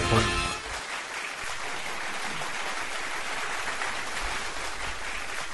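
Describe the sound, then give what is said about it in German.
Sustained applause played as a jingle, a dense steady clatter of many hands clapping at an even loudness for several seconds, following a brief louder burst at the start. “Man muss auch mal den Applaus auskosten.”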